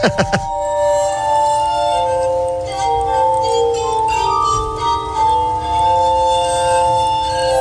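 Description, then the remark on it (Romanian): Ethereal music on Benjamin Franklin's glass armonica: sustained, shimmering glassy tones that overlap and slowly shift in pitch, playing alone and fairly loud, after a few brief tapping sounds at the very start. “Iată încă un sunet uh, făcut cu uh, orga lui Benjamin Franklin.”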